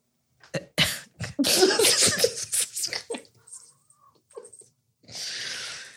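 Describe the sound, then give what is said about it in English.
A cat vocalizes: a flurry of sharp, sputtering bursts, then a few faint, drawn-out calls, ending in a steady breathy hiss. “cats, cats on cats on cats.”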